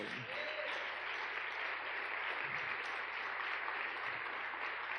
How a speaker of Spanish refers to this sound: Amén. Dale un aplauso.